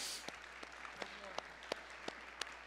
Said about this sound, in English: Don, thank you for sharing. Would you give Don a hand for sharing with us this morning?